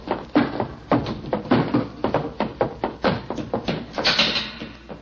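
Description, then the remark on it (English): A theater exit door is handled roughly, opening and closing amid a rapid series of wooden knocks and clunks, moderately loud, with no talking. “I should have remembered that theater exit doors always open from the inside.”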